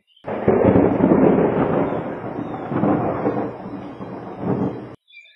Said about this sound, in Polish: Wyobraźcie sobie, że na oceanie mamy sztorm. Jest potężna wichura, fale, jakieś tam statki się zatapiają. Ogromny sztorm.